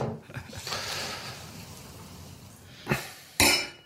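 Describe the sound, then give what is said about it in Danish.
Water glasses on a wine-tasting table are knocked and clink against each other twice in quick succession, the second knock louder with a bright, brief ring, over a low background hum. “De der vandglas, det må du have flyttet, øh, så du ja, ikke sidder og banker”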